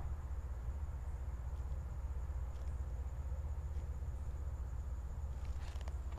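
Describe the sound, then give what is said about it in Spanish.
A steady, droning electrical hum like a running generator, heard from inside a building behind a door, constant and unbroken throughout, with a faint high whine above it and a few soft clicks near the end. “Se oye como un generador de voltaje, no sé.”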